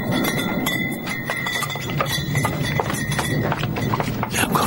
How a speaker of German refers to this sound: ich habe hier noch diesen Ausschnitt, wo es, einfach so klingt, als würde jemand im Weinkeller sich so ein paar Fläschchen rausschnappen. Man denkt sofort auf ein Wein.